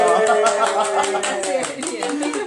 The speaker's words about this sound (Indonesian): Eh, tepuk tangan dong